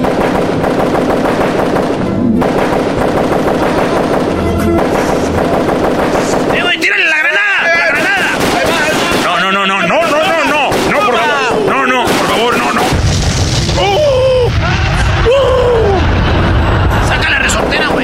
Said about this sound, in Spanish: muy violento, otra vez balazos.